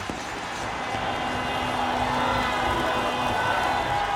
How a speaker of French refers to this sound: Les Français vont faire la fête toute la nuit, défilant dans les rues de la capitale et remontant en foule compacte les Champs-Élysées.